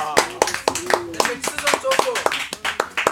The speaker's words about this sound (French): Les gars, est-ce que vous pouvez terminer d'applaudir, s'il vous plaît On peut terminer d'applaudir.